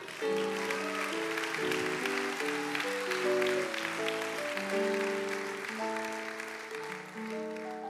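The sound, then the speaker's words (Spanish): An audience applauds for the Lord during a Christian sermon in a steady, sustained wash of clapping that lasts throughout, mixed with held keyboard chords that shift in pitch underneath. “Dale un aplauso por el Señor.”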